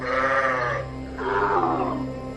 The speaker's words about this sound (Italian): Non è da molto che ho una pecora meccanica.